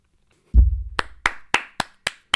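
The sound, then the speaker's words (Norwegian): A short burst of standing applause from co-hosts: six sharp, evenly spaced handclaps ring out after a dull low thump, with no talking. “Stående applaus fra medpåkastere her.”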